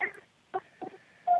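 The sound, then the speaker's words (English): Children crying and shouting in the background of a phone call, heard as several short, faint bursts of voices, with a thin steady tone running underneath. “Whoa, tell those kids to shut the fuck up.”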